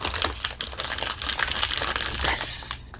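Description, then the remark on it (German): Continuous crinkling of a chip bag, fairly loud, with dense irregular crackles rustling steadily for a few seconds and no voices. “Und zu dritt steht er jetzt davor und äh, es, äh, es raschelt immer mal wieder.”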